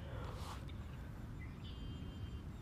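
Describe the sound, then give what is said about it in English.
Faint, scattered bird chirps sound outdoors at dusk over a steady low rumble, with a couple of short high tweets and no one speaking. “I'm yawning because the sun is absolutely amazing out here, and these birds and just being with nature.”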